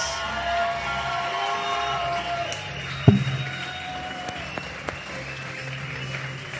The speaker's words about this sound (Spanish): A la cuenta de tres lo anunciamos. Y dice, recibamos con un fuerte aplauso a nuestro gran portero, Toño Rodríguez.